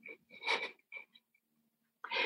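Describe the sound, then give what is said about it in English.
A voice mimics a man's wailing sob: a couple of strained, breathy cries in quick succession, a short gasp-like catch, a pause, then another loud wail. “he wailed. He just he started crying.”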